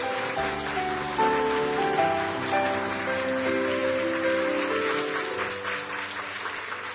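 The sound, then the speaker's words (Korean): An audience at a dawn worship service at the Namyangju campus of 오늘의 교회 (Today's Church) claps in steady, dense applause of blessing and encouragement that fills the whole clip, with a sustained musical tone ringing underneath and the clapping gradually easing toward the end. “네, 전 세계에 있는 오늘에게 성도들과 CGN TV로 예배하고 있는 귀한 성도들께 우리 남양주 오늘에게 성도의 따뜻한 사랑의 마음을 담아 큰 박수로 한번 우리 축복하고 격려하도록 하겠습니다.”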